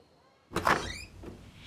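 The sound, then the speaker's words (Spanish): The front door of a house swings open after a short silence, with a soft thud and a brief rising creak, then a fainter bump as it settles. “Cuando Mateo abrió la puerta de su casa, un ratito más tarde, a su mami le sorprendió la alegría en su rostro.”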